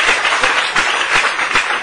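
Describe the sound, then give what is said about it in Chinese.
A crowd at a health education lecture applauds Amway, a dense wash of many hands clapping at once with a few louder swells, and no voices over it. “对这个安利公司包括高总一个教育掌声啊”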